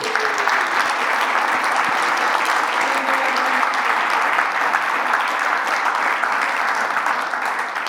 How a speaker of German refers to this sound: Gebt ihm doch einmal einen fetten Applaus.